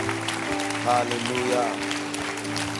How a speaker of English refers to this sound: Can you clap your hands? Hallelujah. Hallelujah. Hallelujah.